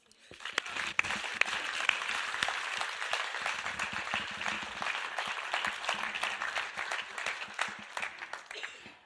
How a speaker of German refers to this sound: Herzlichen Applaus für die alle.